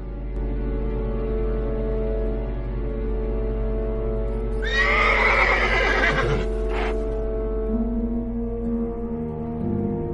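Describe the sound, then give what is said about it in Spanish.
A horse, one of the black horses pulling two carriages in the distance, lets out one loud, quavering neigh midway through, followed by a short snort, all over a steady low droning hum that runs throughout. “A lo lejos, dos carruajes tirados por caballos negros.”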